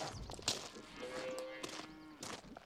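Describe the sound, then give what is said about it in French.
A cow moos in a sustained, droning call outdoors in a field on a farm, with another brief low moo and scattered rustling and shuffling sounds around them. “Vous voyez, les vaches, elles sont sorties tout l'hiver.”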